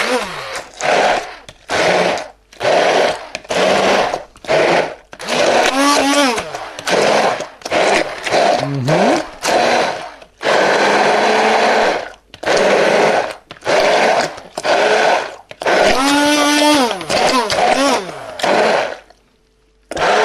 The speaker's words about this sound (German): Und jetzt nehme ich den schönen Pürierstab, Zauberstab. Hausfrauenfreund oder wie auch immer.